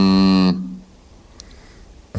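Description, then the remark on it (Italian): A person hums a low, droning "mmm" that sounds much like a cow's moo: one loud, sustained note lasting about half a second, followed by near silence. “Sembra una mucca.”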